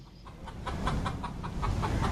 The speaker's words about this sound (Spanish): Pero yo escucho la gallina cacareando. La de aquí.